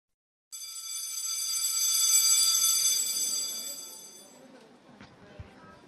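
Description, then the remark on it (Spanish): A school bell rings loudly in one continuous, buzzy electric peal lasting about four seconds, signalling the end of recess, then cuts off, leaving faint background rustling and a soft knock. “Sí, es el timbre lo que acaban de escuchar. Terminó el recreo.”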